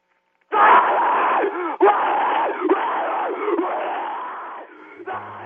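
A single voice screams a stretch of harsh, distorted vocals, loud and close, in ragged sustained bursts with brief breaks between phrases, unaccompanied by any instruments.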